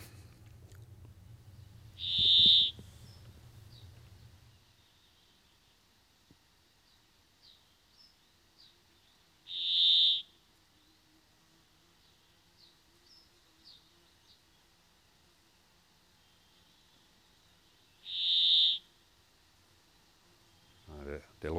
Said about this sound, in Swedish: Vi kanske ska lyssna lite på bergfinken.